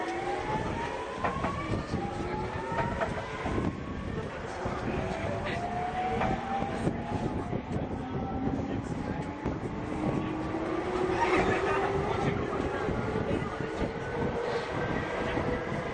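A JR 209 series commuter train running between Akihabara and Shinjuku: a steady, loud rumble of wheels on track with motor whine tones sliding slowly upward as it gathers speed, continuous throughout with no talking.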